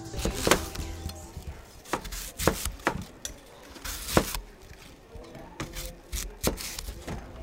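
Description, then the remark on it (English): A hand-crank apple peeler, an apple master, spins an apple on a central spike while a blade follows its surface, peeling the skin in one long strip: irregular sharp clicks and knocks over a low, steady mechanical rumble, with no voices. “It's a hand crank gadget that spins an apple on a central spike while a blade follows the surface of the apple, peeling the skin in one long strip.”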